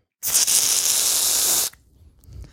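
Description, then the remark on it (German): A free-kick vanishing spray can releases one steady, loud hiss lasting about a second and a half, bright and airy, then cuts off abruptly, leaving only faint low rumble. “Meine Damen und Herren, so klingt das Freistoßspray.”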